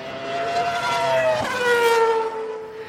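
A car engine roars steadily for about three seconds, its pitch rising and falling as it revs, with a brief sharp swell midway like a fast pass. No voices accompany it.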